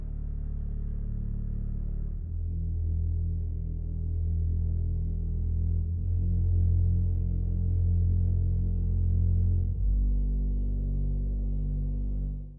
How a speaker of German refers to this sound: Was ich da wirklich sehr cool finde, dass man diese Luft so hört und beide Bassorgeln mal zusammen.